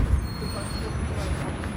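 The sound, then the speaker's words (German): A thin, steady high-pitched electric whine from an electric car while it charges holds throughout, sitting faintly above a constant low rumble inside the car, with no breaks or changes in pitch. “Und das Auto fiebt. Mich würde interessieren, fiebt das immer, wenn man es lädt?”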